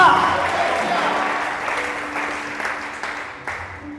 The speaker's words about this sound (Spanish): Ese aplauso tiene que salir de estas cuatro paredes, vamos.